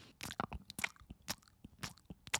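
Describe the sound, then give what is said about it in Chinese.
A voice imitates open-mouth chewing: a run of about seven wet, sharp smacking clicks at an uneven, steady chewing pace, moderately loud with no talk. “但我没有办法接受，就是你张着嘴巴吃东西，你不闭起来。”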